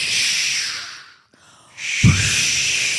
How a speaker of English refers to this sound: So in this place, there is extraordinarily, in this room, there's extraordinarily loud ocean wave music playing, mm. ocean wave sounds playing, right?